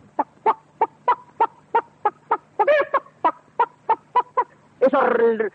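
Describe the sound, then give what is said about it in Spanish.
A voice imitates farmyard poultry, the whole henhouse waking in a hot August afternoon: a steady run of about fourteen sharp clucks, broken midway by a warbling gobble, then a louder, raspy gobbling squawk at the end. “gritos de locura que brotan de el corral caliente por agosto.”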